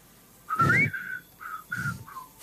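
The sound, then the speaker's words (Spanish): Someone whistles a few bars of a spaghetti western-style theme: a rising sliding note followed by several short, clipped notes, with breathy puffs between phrases and no talking. “¿Quién puede? Hágalo, a ver, hágalo silbando.”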